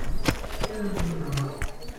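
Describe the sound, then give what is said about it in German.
Quick, evenly spaced footsteps of three people running to a snack bar, each step a sharp thud in a steady rhythm, moderately loud, with a faint low hum underneath and no talking. “Da rennen die drei zum Imbiss.”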